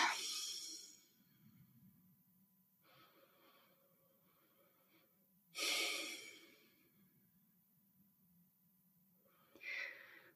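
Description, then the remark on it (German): Slow, deep breathing while sitting upright, three deep breaths in and out, with audible airy inhales and exhales repeating in a calm rhythm over quiet background, no talking. “Ja, und dann atme einfach dreimal tief ein und aus.”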